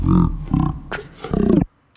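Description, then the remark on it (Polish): Slowed, scrubbed audio heard through speakers while a cursor is moved in tiny steps through a recording, like tape dragged slowly past a playhead: low, growling, smeared voice-like bursts in three or four lumps, loud and rumbling, then an abrupt cut to near silence. “To jest trochę tak, jakbyśmy mieli taśmę w magnetofonie i ją bardzo powolutku przesuwali, ale ta taśma była przez cały czas w głowicy”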